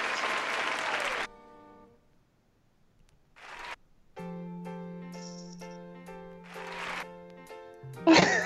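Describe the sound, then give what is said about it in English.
A loud burst of live audience applause and cheering at the Dynamic Banter show lasting about a second, then a sustained tonal chord interrupted by a few shorter bursts of clapping and noise; no talking. “well, you're just always stacking those cheers.”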